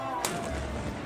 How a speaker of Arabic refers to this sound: وهذا صوت مدفع الفطور